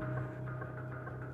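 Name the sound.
electric fan humming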